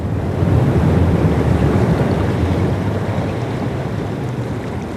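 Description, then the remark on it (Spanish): Ocean waves break and wash onto a back beach facing the open sea on a peninsula, such as Flinders, in a steady, loud roar of surf, with low rumbling wash and a hint of wind noise throughout, no voices. “son las playas de olas, son los que se llama el Back Beach porque si ves la forma de la península, de un lado tiene las playas de agua calma, que son las que están dentro de la bahía, pero del otro lado es mar abierto.”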